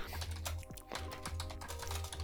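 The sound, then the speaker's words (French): Quick, uneven clicks of someone typing on a computer keyboard while searching for a band's concerts, with a low steady hum underneath and no one speaking. “Tu cherches là Ouais, ouais, concert de ….”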